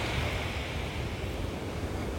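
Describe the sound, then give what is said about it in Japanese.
Steady wash of surf breaking at the water's edge, a continuous rushing hiss of water spreading over the shore and over the bare feet of a person walking into it, with a low rumble underneath and some wind noise, no voices. “そして波打ち際に到達しましたはい今ね両足が はい波にねはい両足のところ波が来たところです”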